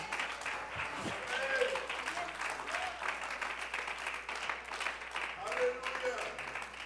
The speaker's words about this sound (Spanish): Si ese aplauso es para el Señor, brinde con el corazón en esta mañana.